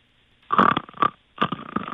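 Rough, rumbling snores come through a tinny phone line: a loud gurgling burst, a short second one, then another drawn-out rasp, with no talking.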